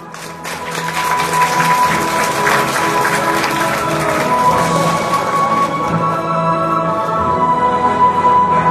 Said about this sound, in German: Nach dem langen Wettbewerb werden endlich die Preise verliehen. Und die Gewinner treten ins Rampenlicht. Sie werden mit großem Applaus belohnt.